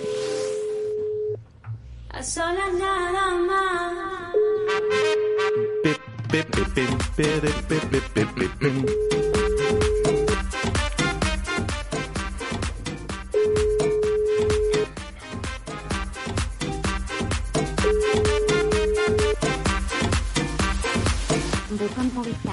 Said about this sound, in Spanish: Nada, no, no nos han cogido el teléfono. Bueno, están ocupados, ¿eh?